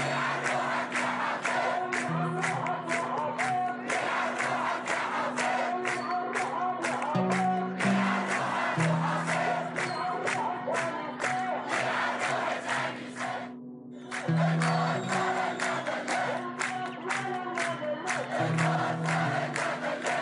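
A large protest crowd in Daraa al-Balad on 14 December 2011 chants curses in unison, rhythmic shouted phrases repeating steadily with a brief pause midway, loud and continuous with a low droning hum underneath.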